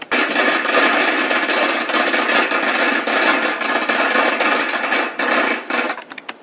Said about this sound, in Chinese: 你听到了吗？这就是放鞭炮的声音。放是动词，在这里是用火烧的意思。鞭炮是名词，是一种样子长长的东西。放鞭炮就是用火烧鞭炮，鞭炮烧起来以后就会发出噼里啪啦很吵的声音。